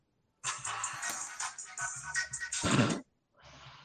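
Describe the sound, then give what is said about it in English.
A phone ringtone plays a tinny, music-like tune through a small speaker for a few seconds, breaks off briefly, then starts again, with no one talking over it. It is an incoming call that goes unanswered. “I said I wasn't answering the phone”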